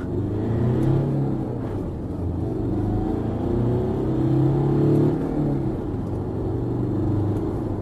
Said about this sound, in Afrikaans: Die beproefde 131 kW 2.5 Mitsubishi masjien trek heel sterk deur die vyf ratte, danksy 'n stewige 400 Nm wrinkrag.